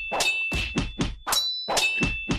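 Metal weapons clash again and again, about eight sharp clangs in quick, uneven succession, each strike ringing briefly with a bright metallic tone. Fairly loud, with no voices.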